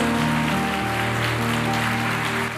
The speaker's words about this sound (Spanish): Démosle un fuerte aplauso al Señor por ellos.